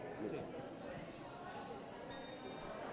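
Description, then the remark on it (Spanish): A small Tibetan practitioner's handbell, of the kind used by practitioners in Nepal and Tibet, is handled, giving soft clinks and then a brief, bright, high ringing tone near the end, heard over a steady murmur of background noise. “Sería, por ejemplo, una campana de practicante, una campana de las que utilizan en, Nepal y en Tíbet como practicante.”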